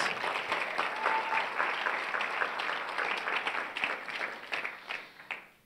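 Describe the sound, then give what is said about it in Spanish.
An audience applauds steadily, a dense wash of many hands clapping at an even loudness for several seconds before thinning and tapering off at the end, with no talking over it. “si quieren aplaudir, háganlo con ganas.”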